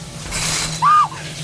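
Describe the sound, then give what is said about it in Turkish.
A quick swish of fabric followed by a short metallic scrape of rings sliding along a rod as a shower curtain in a bathroom is pulled open, fairly loud, over a low steady hum. “Elindeki bandanayı hazırlayıp duş perdesini açtı.”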